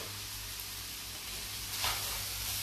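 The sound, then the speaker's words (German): Steady sizzling of spätzle frying with onions and bacon in a hot pan in a kitchen, a continuous broad crackling hiss with a brief louder burst near the end, with a low hum underneath and no voices. “Und die kommen dann auch mit in die Pfanne.”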